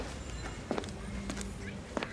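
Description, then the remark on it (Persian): A few footsteps thud at an uneven pace as someone comes down the stairs of a centuries-old house with mud-and-straw walls, with soft scuffs between them over a quiet background hum. “همینطور که داری از پله ها میایی پایین دستت رو بکش روی دیوارها”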